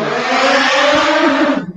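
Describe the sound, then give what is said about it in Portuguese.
A loud motorcycle ridden by a man on the street roars in a steady, harsh drone, then drops off abruptly near the end. No one speaks. “O som bem alto de moto aí.”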